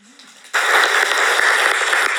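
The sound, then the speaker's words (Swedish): Audience applause bursts in abruptly after a quiet moment and holds as a dense, steady wash of many hands clapping, loud and sustained to the end. “Ja, många applåder där.”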